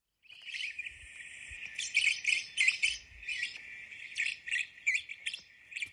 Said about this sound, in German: also ausgewachsene Black-Cheeked Lovebirds, die sind circa 17 Zentimeter groß. Und wir hören uns jetzt mal die Rußköpfchen, die Black-Cheeked Lovebirds an, so klingen sie.